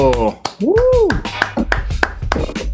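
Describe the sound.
Audience applause welcoming a guest to an interview: a steady crackle of many hand claps running throughout, mixed with a rising-and-falling cheering whoop and other voices shouting over it.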